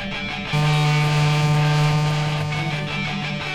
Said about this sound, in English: We can decrease the pressure variation and thereby make the sound less intense by decreasing the amplitude of the source's vibrations. Listen as we decrease the power of the buzzer.